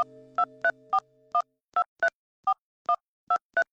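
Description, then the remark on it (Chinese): A telephone number is dialed as a quick run of about ten short, two-pitched keypad beeps at an uneven pace. A steady low dial tone hums beneath the first few and then stops. No one speaks. “这样想着，陈鹏就又拨通了那个电话。”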